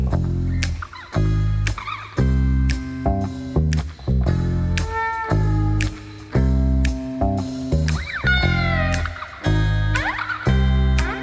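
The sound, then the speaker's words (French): Several cat meows with rising and falling pitch sound repeatedly over loud, rhythmic music with a steady thumping beat. There is no talking. “C'est un chat.”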